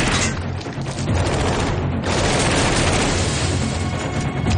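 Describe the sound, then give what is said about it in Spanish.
Sustained heavy gunfire as one person shoots to cover others moving money and weapons from a van: a dense, continuous barrage of overlapping shots and booming reports with no pauses, loud throughout and with no voices. “Bajan de la furgoneta y Jen dispara cubriéndoles mientras trasladan el dinero y las armas.”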